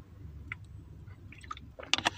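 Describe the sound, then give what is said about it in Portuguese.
Someone takes a sip of water, with quiet wet mouth sounds and small lip smacks, ending in a few sharper clicks and a swallow. No one speaks. “E deixa eu tomar água de novo.”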